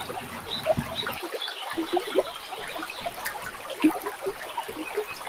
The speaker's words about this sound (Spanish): podemos escuchar el sonido del río, el sonido de las aves, pero también el sonido de la calma y el sonido de la armonía.